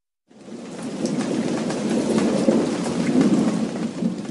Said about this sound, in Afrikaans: terug in Cynthia Mohape se hut in Soshonguve reën dit steeds. Die weerlig blits en die donder weer slaan.